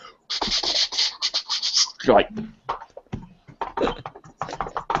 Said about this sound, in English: their keyboard's so loud that even the lightest typing sounds like elephants stomping across this desk. Seriously, there's a person. Anytime he types on the keyboard, this is what you hear over his microphone.